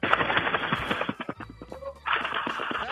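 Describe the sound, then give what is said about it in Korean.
A voice on a radio show mimics a flock of pigeons bursting into flight, with dense, rapid fluttering and clattering bursts that pause briefly midway, then surge back, fairly loud. “그 비둘기 때 날아가는 소리를 간단하게 한번 해보겠요 비둘기 때로 날아가는 소리입니다.”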